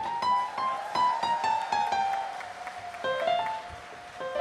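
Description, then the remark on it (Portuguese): Audience applause for a singer being introduced on stage: a steady patter of many hands clapping at moderate volume, with sustained bright tones ringing over the clapping throughout. “eu peço uma salva de palmas para o senhor”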